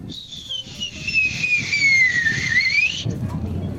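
A person whistles in a WhatsApp voice message, one long, shrill note that slowly slides downward and then swoops back up before cutting off, over a steady low background rumble.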